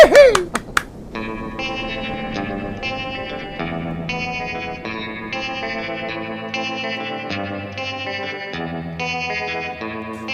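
A cumbia fronteriza song plays after a few sharp opening hits: steady, chorus-tinged keyboard chords change in a regular rhythm at an even, fairly loud level, with no singing yet.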